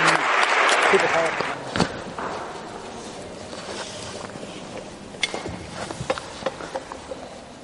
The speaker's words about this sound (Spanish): Un fuerte aplauso.